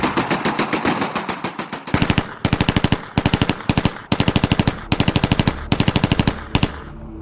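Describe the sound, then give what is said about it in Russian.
Rapid fire from a German MG 08/15, a lightened version of the MG 08 machine gun, in several long bursts, each a fast, even string of sharp cracks separated by brief pauses, loud and with no voices. “1915 году конструкторская группа под руководством полковника Фридриха фон Меркаца разрабатывает облегченную версию пулемета МГ-08.”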